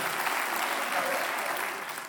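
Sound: audience clapping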